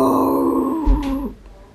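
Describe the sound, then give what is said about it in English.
A person imitates a loud lion roar with a single drawn-out, growling vocal burst that drops in pitch and fades at the end. “and the three children jumped onto the lion's back. The lion let out a loud roar.”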